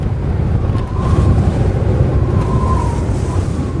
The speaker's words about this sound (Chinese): 车过松花江桥时，与江面上自由的风大面积遭逢。翁子安放下书，聆听风声。